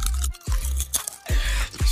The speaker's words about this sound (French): Tu sais, bang bang, c'est bon comme une chips bien croustillante. Ouais, vas-y croustille-moi ça. Vas-y.